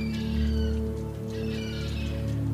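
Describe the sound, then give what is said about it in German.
Seagulls call out in a couple of drawn-out cries, layered over a steady low droning hum that continues throughout. “Also, wenn wir zum Beispiel jetzt die Möwen hören, dann nehmen wir das Möwengeräusch beim Einatmen”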